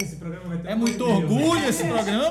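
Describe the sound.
Glasses clink together a few times in a toast, bright short chimes, mixed in with several people talking over each other.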